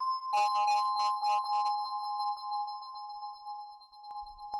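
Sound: answering machine beep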